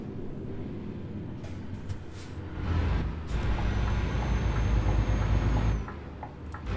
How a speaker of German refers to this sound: Und ähm, das ist alles ganz schön mit dem LKW fahren. Ich, ich, ich, ich mag das persönlich ähm, sehr gerne.